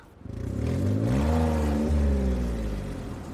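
A car engine revs up and accelerates, its rising hum swelling quickly to a steady, fairly loud drone before easing slightly at the end. No one speaks.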